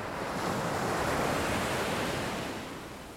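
Steady ocean surf rolls in a broad, continuous wash, swelling slightly then easing toward the end. No voices, just the sustained rush of waves with a faint windy hiss.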